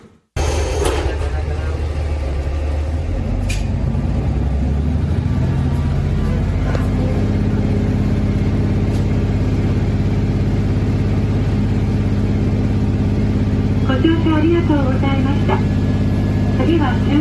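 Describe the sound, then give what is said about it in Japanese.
A Hojo Railway KiHa 47 diesel railcar engine runs steadily, a low droning rumble with a constant hum that holds throughout, with faint mechanical clicks and a brief higher whine near the end. “北条鉄道キハ47降誕そろそろ1周年記念”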